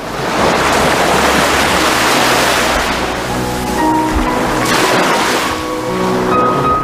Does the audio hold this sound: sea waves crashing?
yes